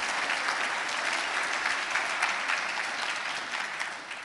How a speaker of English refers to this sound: Come on, let's give him a big shout of praise right now or something. Give him a clap or something.